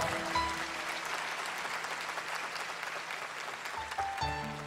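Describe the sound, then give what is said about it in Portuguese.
A crowd applauds steadily for several seconds, dense clapping at a moderate level, with faint background music tones underneath, applauding the decision of the people beside them to give their lives to Jesus. “Aplaude a decisão do pessoal que está do seu lado.”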